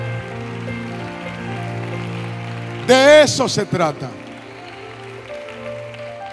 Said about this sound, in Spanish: Dámele el aplauso fuerte. Dámele el aplauso fuerte. Dámele el aplauso fuerte. Dámele el aplauso fuerte. Dale el aplauso fuerte.